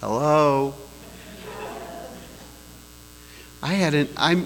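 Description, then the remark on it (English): A man's voice rings out in an empty room, each word trailing off into a lingering reverberant tail, with a low electrical hum underneath. “it's so empty in here I'm getting an echo.”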